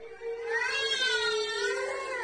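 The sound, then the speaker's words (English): A child wails in one long, high-pitched cry that wavers in pitch and holds steady for about two seconds, loud, with no talking over it. “Why would you want to make the kids scream and cry like this?”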